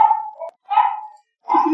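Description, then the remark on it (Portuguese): A dog at home barks three times in quick succession, each bark loud with a short gap between them, with no talking in the background. “Cachorro, é né? E tipo, tem dois aqui em casa”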